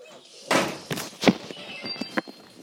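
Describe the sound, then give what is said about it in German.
A door being closed: a series of dull thumps and knocks, with one louder thud in the middle, followed by a few fainter clicks and taps, with no voices. “Ich mach schnell Tür zu.”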